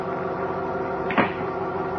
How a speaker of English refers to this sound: Late that evening, following a meeting with Police Inspector Henderson, Editor Perry White drove to his home in suburban Brentwood. Now, having parked his car in the garage, he pulls down the overhead garage doors and hears the lock click.